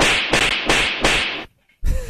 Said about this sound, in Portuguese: Não, mas são palmas cômicas. Palmas cômicas.